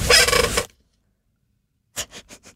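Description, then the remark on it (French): A chair creaks loudly in one drawn-out groan, then falls silent before four short squeaky creaks follow in quick succession, with no one talking, at the end of a radio show. “T'as-tu entendu le. la chaise, oui.”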